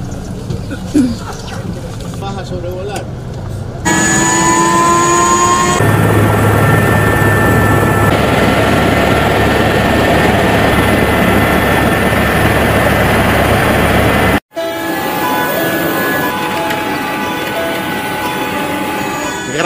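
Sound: helicopter rotor and engine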